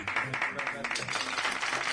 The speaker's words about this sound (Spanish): Por esto, aplausos, por favor.